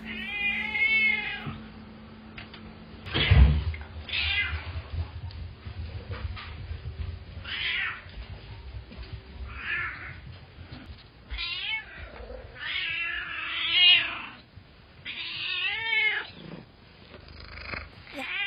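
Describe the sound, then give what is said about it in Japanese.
An excited cat named Sora meows repeatedly and insistently for attention, a rapid series of loud, excited calls with short gaps, some drawn out and wavering, with a low rumble underneath at times. “これはあのめちゃめちゃ興奮状態のそらちゃんでございますのかまってかまってかまって来て来て来てみたいなそういう感じに喋っておりますこちら”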